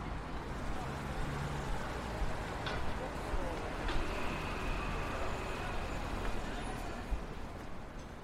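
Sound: city street ambience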